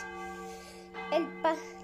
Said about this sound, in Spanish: Un Viernes Santo sonaron las campanas que avisaban el Vía Crucis.